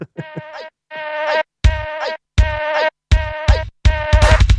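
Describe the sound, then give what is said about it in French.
A YouTuber's remix of the Super Timor insecticide TV commercial: buzzy, nasal, mosquito-like tones repeat in short chopped bursts separated by brief silences, with a heavy thumping beat joining partway through. Loud, no talking. “Donc, je vous laisse apprécier le remix de la pub Super Timor.”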